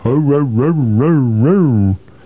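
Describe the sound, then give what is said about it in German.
A voice imitates wind whistling through, with a sustained 'oooh' that rises and falls in pitch in slow waves for about two seconds, then stops abruptly. “Der Wind. Uh, uh, so durchpfeift.”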